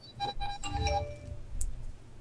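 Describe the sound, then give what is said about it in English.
A mobile phone ringtone plays a short melody of bright electronic tones, several quick notes fading out over about a second, fairly quiet over low background rumble with no talking. “Sorry, that was my phone was your.”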